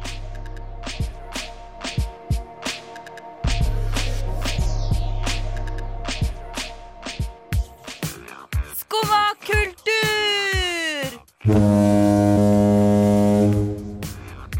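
Deep, loud foghorn blasts sound twice, each a long steady low drone lasting a few seconds, separated by sharp clicks, knocks and swooping electronic tones.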